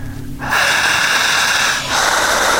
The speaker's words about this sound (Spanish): Y aquellos que están haciendo el ejercicio en casa, sigan respirando, intensa, potente y jadeante